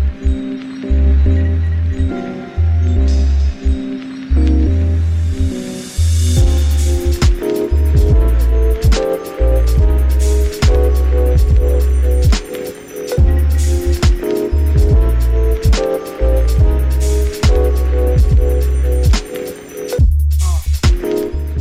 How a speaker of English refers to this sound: All right, we'll be right back. Hold on, enjoy this instrumental some more.